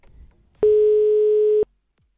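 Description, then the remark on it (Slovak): A single steady telephone ringing tone, a contestant's phone being called during the Give Me 5 game, sounds for about one second, loud and clear, with a faint low rumble before it and silence after. “A teda zvoní ti telefón práve v tomto momente.”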